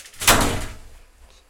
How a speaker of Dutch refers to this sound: Ja, ik ging heel even de deur dicht doen.